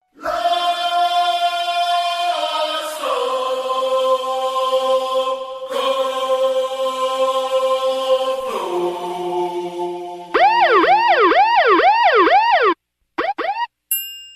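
Opening bars of a song: loud, sustained electronic tones that shift pitch in a few steps, then give way to a rapid, swooping siren-like warble that cuts off abruptly. No voices.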